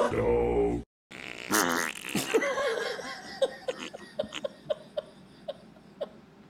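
A loud, buzzy fart blares at the start and cuts off abruptly. After a short silence, a string of short, rhythmic laughing bursts follows.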